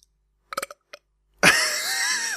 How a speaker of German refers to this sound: Moment. Bei mir sitzt da irgendwie ein Rülps am Hals, aber da bin ich rauskommen.